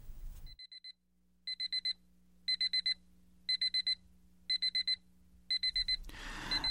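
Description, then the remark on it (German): A digital alarm clock set for 10 o'clock beeps in repeated bursts of four quick, high-pitched tones, evenly spaced, with a soft hum underneath and a brief rustle at the end. “Ich ging ins Bett, sobald ich nach Hause kam, und stellte den Wecker auf 10 Uhr.”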